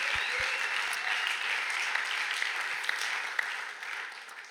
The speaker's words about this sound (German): Ja, gebt Gott Applaus. Wenn wir immer einen Applaus geben, gebt ihm einen Applaus.